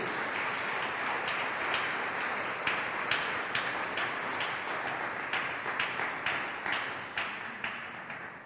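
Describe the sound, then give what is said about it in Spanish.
An audience claps their hands together for the King, Jesus, a dense wash of clapping that settles into a steady rhythmic beat with sharp, regular accents, fairly loud and with no talking. “Aleluya, démosle palmas al Rey, hermano.”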